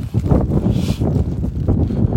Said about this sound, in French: j'espère qu'on me reçoit bien un peu du vent et euh, que ça passe.